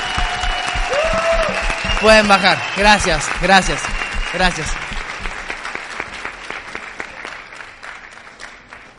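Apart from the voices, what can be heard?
audience applause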